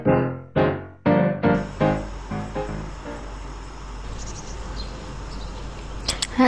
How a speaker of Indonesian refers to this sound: Wah, suasananya udah seperti di taman ya, ada suara burung, nyaman sekali dibuat ngobrol santai kali ini.